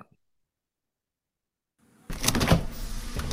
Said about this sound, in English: who opened the door? I can't hear anything. Close the door. Hey, we're working here. um, hi, He opened the door and he closed it and he opened it again.